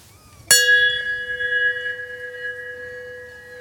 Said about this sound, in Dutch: En ik stel me zo voor, in vroegere tijden, dat die veerman, als hij die bel hoorde